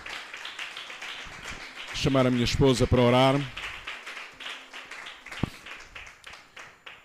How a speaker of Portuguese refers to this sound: Pode aplaudir Jesus nesta noite.